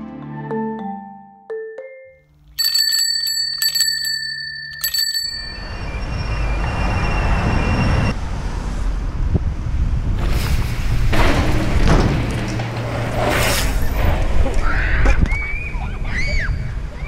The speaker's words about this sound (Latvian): Pilsētas dunoņa, kņada un teju pilnīgs klusums.